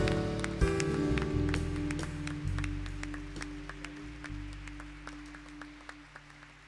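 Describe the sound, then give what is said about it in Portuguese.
A church audience claps in praise of the Lord during worship, in a steady patter that starts dense and gradually thins to scattered individual claps, over a sustained low instrumental drone. No one speaks. “Nós te engrandecemos com palmas, pois o Senhor merece e é digno de todo louvor, de toda honra, de toda glória.”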